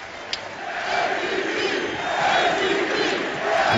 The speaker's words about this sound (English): Listen to this crowd. The chants aren't for Kristaps Porzingis, who has not played here in the fourth. They're for Michael Beasley in his place.